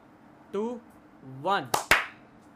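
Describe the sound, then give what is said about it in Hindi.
Two sharp, loud hand claps land in quick succession just after a couple of short voiced vocal sounds, clapped to sync the start of an audio and video recording. “sorry चलो clap करते हैं”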